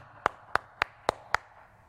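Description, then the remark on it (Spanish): Five sharp hand claps in a steady, evenly spaced rhythm, crisp, with a quiet background and no talking. Someone claps to call at a door in Uruguay, where callers clap instead of ringing the bell or knocking. “allá en Uruguay usted no, usted no toca el timbre ni toca la puerta. La manera como se hace, usted llama así.”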